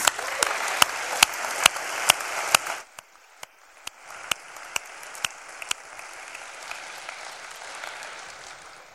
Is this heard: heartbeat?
no